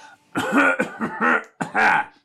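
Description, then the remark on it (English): Loud, rude, exaggerated throat clearing: several raspy, voiced bursts in quick succession, with a short pause before a final forceful clear. No words are spoken. “seeing her not paying attention to us, will very loudly and rudely clear her throat.”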